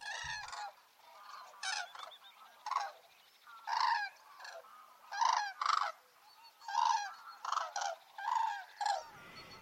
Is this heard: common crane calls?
yes